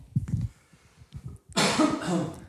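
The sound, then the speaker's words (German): A few soft, low throaty sounds lead into one loud, harsh cough burst up close that rasps on for about a second before cutting off. “Ich finde, das ist universell, egal ob du hustest oder niest”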